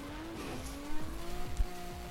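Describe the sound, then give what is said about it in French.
A Mustang car fitted with a modified Japanese Nissan engine revs hard, its pitch climbing and dropping through quick gear changes, with a brief tire squeal mixed in. Loud, with no voices. “Ils vont mettre un moteur japonais dans une Mustang.”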